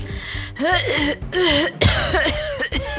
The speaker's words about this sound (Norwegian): Det var litt eh, slitsomt å gjøre det der, så eh, … får et lite hosteanfall.